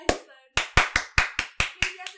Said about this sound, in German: Es klatscht!